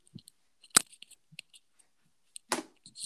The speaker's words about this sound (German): nein, nein, nein, nein, nein, meine Katze kotzt gerade auf meinen Schreibtisch. Was? Nein, nein, nein.